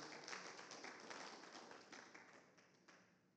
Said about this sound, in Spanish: para que no estén tan serios, pues demos un aplauso a Dios.